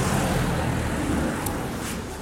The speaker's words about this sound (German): Wir entschuldigen uns hiermit immer und für alle Zeiten dafür, dass Autos auf dieser Welt fahren. Wir können es leider nicht, nicht ändern und wir wissen, dass das total nervig ist.